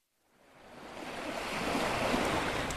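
Cold wind blows in a broad, steady rush on a beach, swelling from silence within the first half second and then holding loud and constant, with no voices over it.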